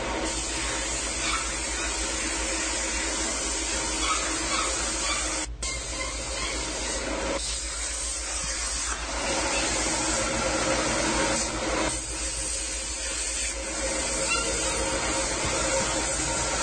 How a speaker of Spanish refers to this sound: hay un sonido medio... Sí, ese es de aire, creo que. es un taller de metal mecánica.